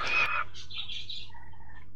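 Birds sing in a short burst of bright chirps and warbling phrases, starting with a louder trill and trailing into softer calls, with a faint low hum underneath and no talking.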